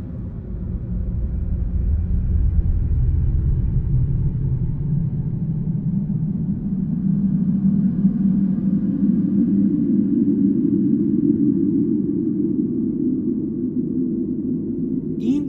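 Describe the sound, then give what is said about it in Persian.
A deep, continuous earthquake rumble recorded underground by Japanese geologists during the Tohoku earthquake of 11 March 2011, loud and steady throughout, with a dense low roar that swells slightly in the middle and never lets up, heard alone without any talking. “صدای همون زلزله است این صدا رو زمینشناسای ژاپنی از لایه های زیر زمین ضبط کردند زلزله ای که در روز 11 مارس سال 2011 اومد و به زلزله توهوکو معروف شد”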